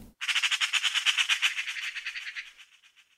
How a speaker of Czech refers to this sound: Jen si všimla, že na střechu poblíž řeky se slétly straky na ranní rokování.